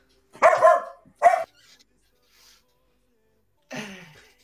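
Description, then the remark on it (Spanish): A dog named Loba barks: two loud, sharp barks in quick succession, a pause with faint noise, then a third bark that trails off into a whine. “¿Qué no, qué no, no pues es que está ladrando loba, güey.”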